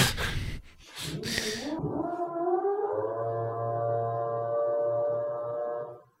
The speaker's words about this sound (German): Das hört sich so ein bisschen an wie so eine Sirene, ne? Ja, er hat jetzt wieder den dicken Bohrkopf. Das ist jetzt Loch Nummer zwei.